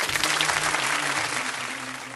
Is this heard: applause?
yes